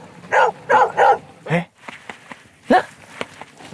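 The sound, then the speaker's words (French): A dog barks several times at a walker near Montose in a quick run of sharp, loud barks, then lets out one more bark after a pause, with faint steps or clicks in between. “Eh, eh, il m'a aboyé, puis maintenant il montre le chemin.”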